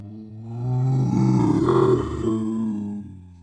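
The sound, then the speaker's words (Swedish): A person imitates a bear with a deep, sustained growl lasting a few seconds, swelling louder in the middle with a rough, rumbling texture before tapering off. “Hur låter björnen eller? Jag vet inte. Jag tänker att björnen har mycket större kroppshydda så att den måste låta mörkare så här.”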